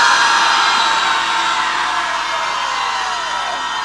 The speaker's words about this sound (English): Okay, after three, we're going to roar. One, two, three, roar!